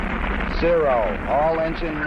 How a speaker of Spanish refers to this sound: Todos los motores andando. Tenemos el despegue